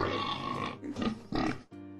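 A pig grunts and snorts in a quick run of three or four rough, nasal bursts, the last one a short squealing oink. There is no talking.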